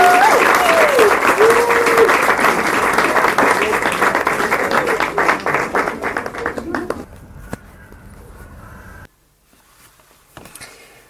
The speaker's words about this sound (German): so here in the audience. Yeah, we give them an applause.